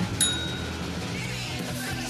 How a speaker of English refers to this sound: Um, and you get to end the episode with a bell ring. Hold her up and give her a ring.